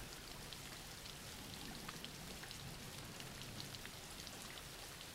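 Steady rain falls throughout, a dense, even hiss of countless drops with faint scattered patters and taps on a surface. No voices are present, and the level stays constant and fairly soft.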